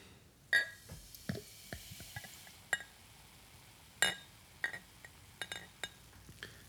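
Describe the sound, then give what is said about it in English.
Beer poured from a bottle into a glass, with a faint fizzing hiss and a series of sharp, irregular glassy clinks. No one speaks. “okay i can't actually fit all that in my glass because it's uh, the, the head's massive okay um, maybe i should have let this beer settle longer than it has it's not crystal clear by any stretch”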